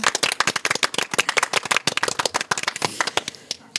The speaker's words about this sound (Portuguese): E em 2030 isto será património da Unesco. Palmas para isso. Património Mundial.